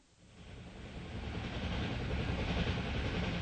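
A train bound for Berlin rumbles steadily along the rails through countryside of forests, fields and rivers, a dense low roar with a hiss on top that swells over the first second and then holds, fairly loud, with no voices.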